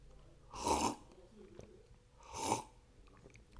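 Two breathy slurps of someone sipping coffee, a couple of seconds apart, with quiet pauses between them and no talking.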